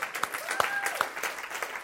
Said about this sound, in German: Mal einen Applaus dafür.